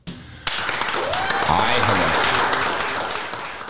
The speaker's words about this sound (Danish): Og øh, vi tager fat i noget, hvor vi rent faktisk bruger instrumenter, som vi jo selv kan lave, nemlig os selv. Og øh, det her remix, det starter altså med en masse klappen.